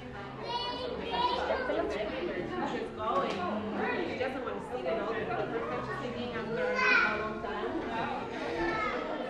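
Young children play at an open playgroup, with overlapping chatter, high-pitched shouts and squeals, and a steady busy hum of activity throughout.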